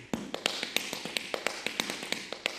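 Tap dance shoes strike a hard floor in quick, uneven rhythmic patterns, around fifteen crisp clicks and scuffs in under three seconds, close and moderately loud with no voices.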